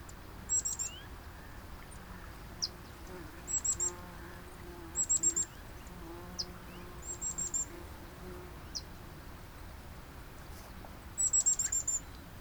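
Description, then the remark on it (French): Muffled bird cries carry across an open wetland on an island sanctuary, arriving in short clusters of quick high notes every few seconds, amid grass rustling in the wind and splashing in water, over a steady low wash of wind and ambient noise. “Des froissements d'herbe sous l'effet du vent, des bafouilles dans l'eau, des cris étouffés d'oiseaux.”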